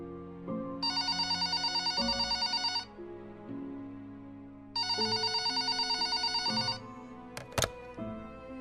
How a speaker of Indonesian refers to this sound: Tiba-tiba ia mendengar suara telepon berbunyi.